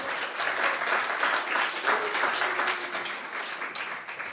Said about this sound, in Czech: Pojďme dát potlesk těm, co právě odchází.